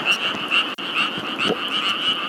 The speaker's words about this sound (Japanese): カエルがめっちゃうるさいですねこれねカエルうるさいゾーンということはもうめちゃくちゃもう家が近くなってきてるんでめっちゃ駆け足いかなきゃいけないんですけど、これ。